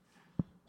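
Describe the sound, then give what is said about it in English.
A single quick, muffled sneeze, soft, with a short thump followed by a brief breathy hiss. No one talks. “Bless you.”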